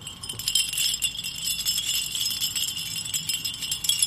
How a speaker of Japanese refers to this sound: 木の枝にこれはあアルミの、はい、あのコーヒー缶のちょうど上のところ、えー、飲み口のところですね、はい、で切り方によって、えーと、短くしたりちょっと長くしたりするとまた音が違うんですそれを木の枝に糸で吊るしてるんです